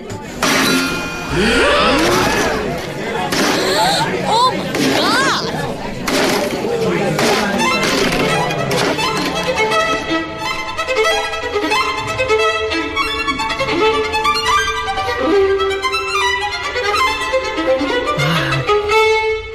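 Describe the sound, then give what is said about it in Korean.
A violin is lifted and brought down hard, smashed over and over in Nam June Paik's violin solo performance, sharp clanging hits leaving its strings ringing and twanging in bright, wavering tones, with loud, continuous crashing throughout and no clear talk. “그러면은 이 바이올린 독주라는 게 바이올린을 혼자 부수는 공연이었군요.”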